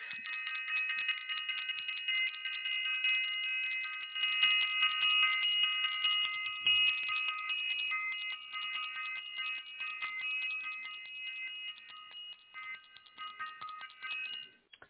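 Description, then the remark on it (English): A bell rings with a long, sustained shimmering tone of steady high overtones, swelling slightly partway through and humming on for about fifteen seconds with no one talking. “So I also want to ring the bell.”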